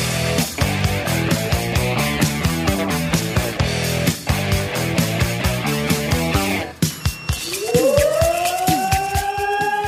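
A fire brigade alarm siren calling out the fire brigades of Bevern and Essen-Oldenburg in the district of Cloppenburg, Germany: a rapid, repeating pattern of stepped electronic tones, then a loud siren that winds up and climbs steadily in pitch. No one speaks.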